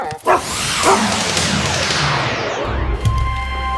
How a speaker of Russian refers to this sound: Ой, как здесь шумно! Все стучит, гремит А я думал, мы на сражение какое-нибудь перенесемся А мы на завод попали Ага, кругом трактора, сельскохозяйственная техника А вон там рабочие что-то приваривают сверху к трактору